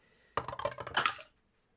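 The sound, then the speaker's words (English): Dice from the roller's second-ever set clatter across a hard table in a quick burst of sharp clicks and rattles, lasting about a second before settling into silence. Fairly loud, with no voices. “This is uh, from my second set of dice that I ever bought, and it usually rolls like garbage.”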